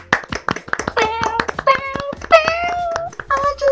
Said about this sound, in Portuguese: Eu vou bater aqui, vou acordar meus vizinhos, mas é, eu tô fazendo palmas virtuais.